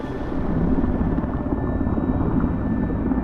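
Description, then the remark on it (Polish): A large SH-3 Sea King rescue helicopter drones steadily overhead as it arrives at a ski slope in northern Norway, its heavy rotor chop thudding in a dense low rumble that stays loud and constant throughout, with no voices. “SH-3 Sea King, duży śmigłowiec ratowniczy, w końcu nadleciał.”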